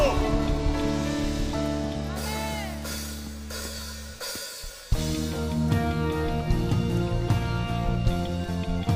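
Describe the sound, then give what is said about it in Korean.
An audience claps steadily as applause of glory to God during worship, a dense wash of applause blended under loud, sustained worship music with held tones and voices; the music briefly drops out near the middle before returning. “하나님께 우리가 드릴 수 있는 가장 큰 영광의 박수”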